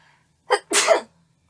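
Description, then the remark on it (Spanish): A single loud sneeze: a short sharp intake burst followed by a fuller explosive release, with silence around it. “Salud.”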